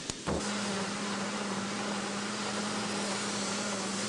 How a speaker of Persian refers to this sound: تو یکی ماشین میندازیم تا آبشون کشیده بشه چطور آبشون کشیده میشه خب کشیده میشه دیگه آخه چطوری این ماشین تو هر دقیقه چند هزار دور میگرده و آب پارچه رو میگیره